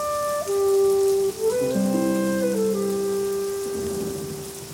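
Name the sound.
rain falling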